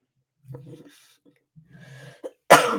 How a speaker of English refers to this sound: excuse me, I'm still trying to get over this cough.